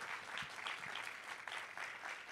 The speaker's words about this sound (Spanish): Un aplauso fuerte, fuerte, fuerte.